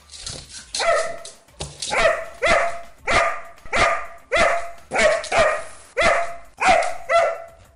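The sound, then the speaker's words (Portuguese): A dog barks over and over, about nine sharp, loud barks in a fairly steady rhythm, with no one talking. “isso mesmo, para espalhar a beleza dos seus olhos caninos pela internet, ela tá super disposta, né?”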